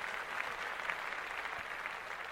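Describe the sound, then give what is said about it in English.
Hands clapping in a steady, dense patter, like a group applauding together, with no pause for the whole moment and no voices on top. “Yeah, that, clapped that up.”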